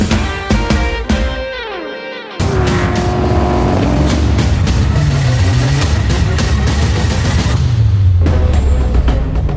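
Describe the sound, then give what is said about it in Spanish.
A rally car engine at the Dakar Rally in Saudi Arabia revs hard and accelerates, its loud roar climbing in pitch through repeated rising sweeps, then settling into a steady, gritty drone with no voices. “Y este sonido nos lleva al Dakar, Arabia Saudí.”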